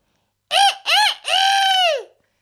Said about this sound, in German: Der Hahn auf dem Hof.